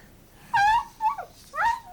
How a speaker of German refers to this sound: Hör auf zu kläffen, du verdammte Tröle! Hunter Scotts Hund scheint ihren Bruder nicht zu mögen, Mrs. Untertal.